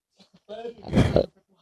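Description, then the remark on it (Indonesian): Someone mimics a pig with a short, snorting oink lasting about a second, rough and nasal, preceded by a couple of faint soft clicks. The imitation is moderately loud. “Babi ya.”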